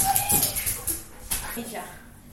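A small dog whimpers and growls in short, excited bursts while play-fighting with a woman, with yips and scuffling, fairly loud at first and then easing off.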